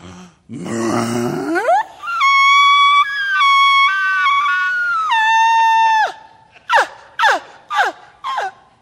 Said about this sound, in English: and that's the bull elk. And so we heard this several times, when we're walking up to the canyon. It's pitch black outside, and we're all we're hearing is, yeah, yeah. That was the bull elk.